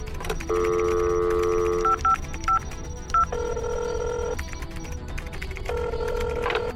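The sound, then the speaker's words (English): Telephone keypad tones sound clear as someone dials a phone call: a long held tone, a quick run of short beeps, then two more sustained tones, over a steady low background hum with no talking. “I have one more phone call to make.”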